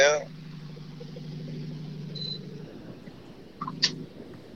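Ola Axelsson's rally car engine, on the second day of a rally, drones with a steady, low, rough hum that holds for several seconds, then briefly surges. A couple of short higher-pitched whines cut in near the start and end.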